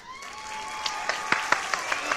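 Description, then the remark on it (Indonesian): Light applause of a handful of sharp hand claps in a loose, quickening rhythm, over a steady tonal hum with no talking. “Oke, tepuk tangan semua, tepuk tangan, tepuk tangan.”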